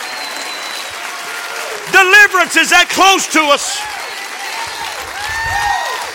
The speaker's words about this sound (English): Oh, clap your hands to that.